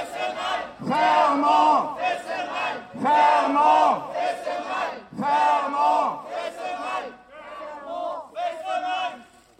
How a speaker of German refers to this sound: So hört sich der französisch-deutsche Protest gegen das Atomkraftwerk Fessenheim an, Frankreichs ältestes AKW. Es liegt ungefähr zwei Kilometer westlich der deutsch-französischen Grenze im Elsass.